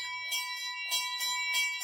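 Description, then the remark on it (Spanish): A monastery bell of a Carmelite hermit community in Spain rings at the start of the day, marking the beginning of community prayer. It is struck several times in quick succession so its bright, sustained metallic tone hums on between the clangs, with no voices present. “Empieza el día con el toque de campana.”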